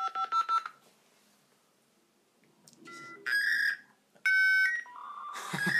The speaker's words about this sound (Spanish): No, así era, güey, así sonaba el internet. ¿Nunca te tocó, güey?